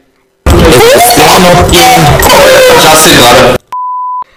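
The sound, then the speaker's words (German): A loud Windows XP startup chime from a laptop left at full volume in a classroom swells for about three seconds, harsh and distorted, then cuts off and a short, steady electronic beep follows. “Und, äh, auf einmal kommt, dieses, äh, kommt dieser Windows XP Startup Sound.”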